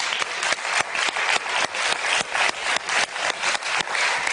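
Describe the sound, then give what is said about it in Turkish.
Steady applause from a crowd, a dense wash of many hands clapping with sharper individual claps standing out, holding at a fairly even loudness throughout with no voices. “Alkış.”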